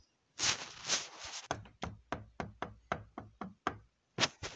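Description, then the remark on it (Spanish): A brief rough scraping gives way to a steady run of about nine firm, clear knocks on the door of a house, followed by a short pause and one final knock. “Luego se dirigió a la casa de esta chica y cuando llegó tocó la puerta.”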